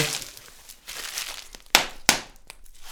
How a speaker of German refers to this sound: Hier Knisterfolie. Knisterfolie.